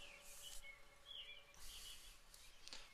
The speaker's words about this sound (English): Tie my shoes right now, and it's actually a really nice morning out. Might be able to hear the birds in the background. It is 425 right now